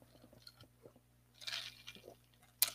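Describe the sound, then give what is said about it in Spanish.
Someone takes a quiet sip of water: faint mouth noises, a brief slurping swell midway, then a sharp wet click as they swallow. No one speaks. “Ahorita les pido permiso para tomar un poquito de agua porque se te canijo el calor.”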